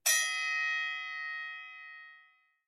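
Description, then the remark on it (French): A single metallic gong strike signals the start of the second round of a debate, ringing out clearly, its bright shimmering tone sustaining and slowly fading over about two seconds. No voices are present. “tu peux donner le gong.”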